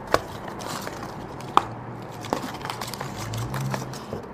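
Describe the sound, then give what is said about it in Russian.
A cigarette is drawn from a pack: faint papery rustling with a few sharp little clicks and crinkles spread over a few seconds, otherwise quiet, with no talking. “Петя замолкает и достает из пачки очередную сигарету.”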